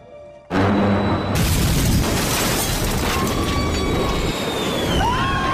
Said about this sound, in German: Ein lauter Knall, eine Art Explosion, weißer Dampf, Zeitungen, Aktentaschen, Jacken, Schuhe, alles fliegt den Insassen